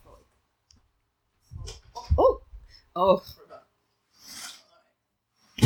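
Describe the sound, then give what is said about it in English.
A window being closed: low thumps and a brief rasping slide, then a sharp click at the end, with a person exclaiming briefly in between. “I'm gonna close the window.”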